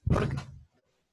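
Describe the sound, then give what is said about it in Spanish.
A door is opened by someone bringing a slice of pizza, in one quick, fairly loud movement, a rough rattling sweep lasting about half a second before quiet returns. No one speaks. “Me abrieron la puerta y me trajeron una porción de pizza.”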